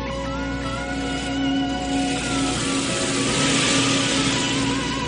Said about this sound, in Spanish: John lo contempla serio desde enfrente y al instante Johnny le saluda desde su coche y se aleja por la calle.